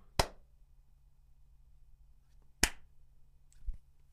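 Two sharp, isolated hand claps about two and a half seconds apart, each a crisp smack, followed by a softer tap, over a low steady hum with no talking.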